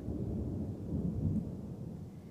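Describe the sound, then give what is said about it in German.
A deep, continuous rumble of rolling thunder fills the scene, steady and fairly loud throughout, with a faint hiss of storm noise above it and no voices. “Vielleicht bist du frustriert, dass da wieder ein Sturm ist.”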